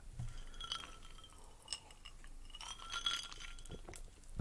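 Glass clinking as whisky is drunk: several bright, irregular clinks and a faint liquid slosh, with ice-like taps scattered over a quiet background and no talking.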